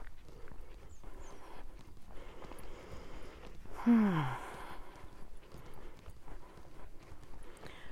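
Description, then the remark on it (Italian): Steady footsteps of a person walking at an even pace on a walk, fairly soft, continuing throughout, with a brief murmured vocal sound from the person partway through. “Come senti anche io sto camminando.”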